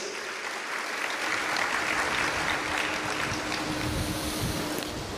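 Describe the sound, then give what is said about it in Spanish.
Steady applause from an audience, given to the King of Kings and Lord of Lords, a dense, continuous wash of clapping that holds at an even, moderately loud level throughout with no voices on top. “Dale un fuerte aplauso, Rey de Reyes y Señor de Señores.”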